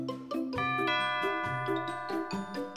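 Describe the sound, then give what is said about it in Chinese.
A crisp doorbell at a front door chimes out a bright melody of ringing bell tones in steady succession, each note sustaining into the next, with no voices present. “门前响起了清脆的门铃声。”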